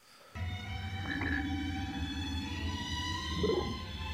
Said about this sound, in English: They're playing this super sad version of the G1 the- uh, opening theme uh, on strings, which I do not remember hearing before. It is I don't even think I've ever noticed before. It is so delightful.